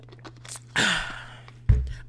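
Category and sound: human body sound, drinking water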